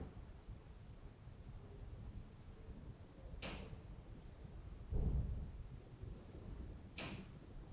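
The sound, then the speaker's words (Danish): Two sharp, isolated knocks a few seconds apart, with a dull low thump between them, all fairly faint against a steady low rumbling background and no voices. “Nu kom det tættere på banket.”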